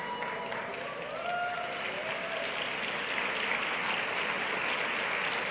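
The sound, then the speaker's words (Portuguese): Steady applause from a group, a dense wash of clapping at an even level throughout, with faint voices and a few brief tonal sounds mixed in early on. “Eu não sei quem que você está aplaudindo, mas tudo bem.”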